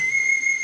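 A phone's alien ringtone plays as a steady, high-pitched electronic tone, held at one pitch with a thin overtone above it, fairly loud and without any talking.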